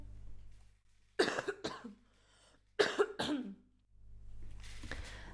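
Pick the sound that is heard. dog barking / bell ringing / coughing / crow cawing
coughing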